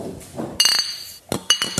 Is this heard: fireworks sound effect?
no